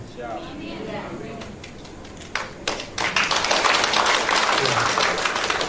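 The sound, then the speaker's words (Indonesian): Scattered hand claps build into dense, sustained applause from a crowd during a sermon, a steady crackling patter that swells loudly partway through and continues to the end. “Saya sudah ajak saudara mari tanggung lagi sama-sama bukan tepuk tangan.”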